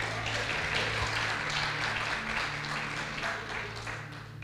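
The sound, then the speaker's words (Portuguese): A church audience applauds the brothers steadily for several seconds, a dense wash of clapping at an even level with a low hum underneath and no voices. “Salva de palmas para os irmãos aí.”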